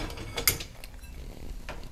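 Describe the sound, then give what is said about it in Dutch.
Glasses being cleared away: a few sharp clinks and knocks, one bright ringing chime standing out, over a low steady background hum with no one talking. “Ik ga glazen opruimen.”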